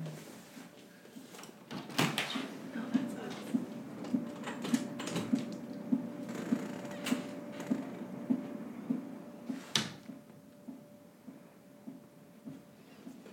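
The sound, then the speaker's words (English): A clothes dryer runs with a steady hum and regular tumbling thumps, broken by a couple of sharp clunks before the motor tone cuts out near the end as it is stopped. “I didn't realize how loud the dryer was.”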